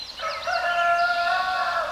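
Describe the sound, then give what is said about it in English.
A rooster lets out one long, loud crow, a drawn-out harmonic call that holds steady for almost two seconds with no voices around it. “Chickens are awake and ready to go well before dawn.”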